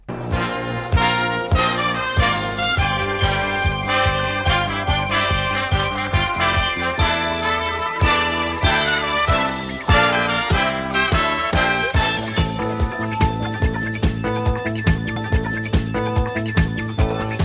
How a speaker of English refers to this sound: This, to me, was one of the uh, best NFL themes that CBS had.